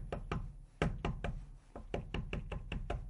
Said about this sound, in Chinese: 这车玻璃被人使劲的敲